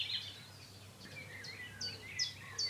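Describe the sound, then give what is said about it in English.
A bird sings in cold weather, giving a quick series of short, high chirps and trills over a low, steady background hum. “So when they first arrive, they sing a lot harder.”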